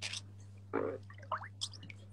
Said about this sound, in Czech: ale jako teď si udělal takový zvuk a výřivka zabublala. To už si ji zapnul, nebo?